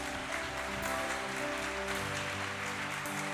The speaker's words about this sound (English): Y'all better start clapping and saying hallelujah.